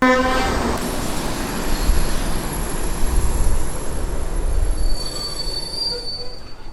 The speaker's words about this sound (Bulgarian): на фона на преминаващите стари вагони на българските железници и за немарената гара.